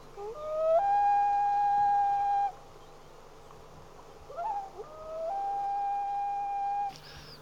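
Two long, mournful wails of a great northern diver (loon), each sliding up and holding a steady, ringing pitch, separated by a brief wavering call. No one speaks.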